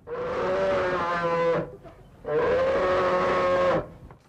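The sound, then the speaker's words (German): A bear growls twice in long, loud, droning bellows, each about a second and a half, separated by a short pause, heard alone with no talking. “Sprechen können Bären nicht, dafür brummen sie.”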